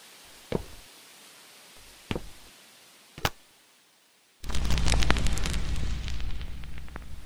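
Three separate fireworks burst with sharp booms a second or so apart, then a dense, loud barrage of crackling explosions and rumbling takes over and continues to the end.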